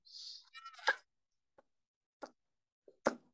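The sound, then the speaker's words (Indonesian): A handful of sharp, dry ticks land roughly every second from a clock at home; a brief hiss and faint rustle come just before the first tick. “Misalnya eh, ada suara di rumah, suara AC, suara saya biasanya suara jam, ya, hmm.”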